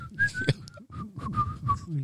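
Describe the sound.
A person whistles a short tune: a few sustained, slightly wavering notes strung together over about two seconds, with a soft low rumble underneath.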